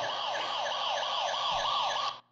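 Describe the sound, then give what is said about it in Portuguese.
A loud electronic siren sound effect wails steadily, its pitch sweeping up and down in quick regular cycles for about two seconds before cutting off abruptly, with no talking over it, played to wake up the listeners. “Vou tocar a sirene para acordar aqui, galera.”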